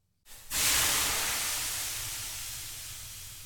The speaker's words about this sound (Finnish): Lähdetään löylyyn.